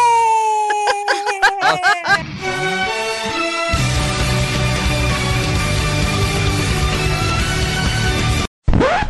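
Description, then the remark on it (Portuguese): A loud, shrill scream with a wavering, sliding pitch, breaking into sustained high wailing that holds for several seconds before cutting off abruptly near the end. “Esse grito eu vi chegando.”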